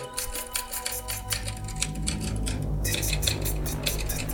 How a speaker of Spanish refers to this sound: Era la máquina de escribir de la señora China.